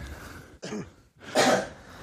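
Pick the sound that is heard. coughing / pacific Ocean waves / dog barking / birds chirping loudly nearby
coughing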